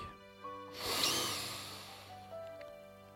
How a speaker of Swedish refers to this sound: Vi gör så här, vi andas tre djupa andetag.